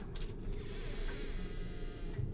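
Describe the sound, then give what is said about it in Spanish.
A door handle rattles and clicks clumsily for a moment as someone fumbles at it, then a paneled door creaks slowly open, over a steady low mechanical rumble with no voices. “oí un desmañado forcejeo en el picaporte y luego vi cómo se abría la artesonada puerta.”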